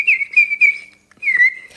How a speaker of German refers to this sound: Stell dir vor, mit diesen Pfeifen haben die Menschen in den nordspanischen Bergen vor vielen, vielen Jahren harmlose Singvögel angelockt und gefangen